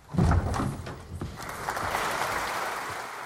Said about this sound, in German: Er macht sich bereit hinter der Bühne des Amsterdamer Konzertgebaus, dehnt sich, hüpft etwas herum. Die Tür geht auf.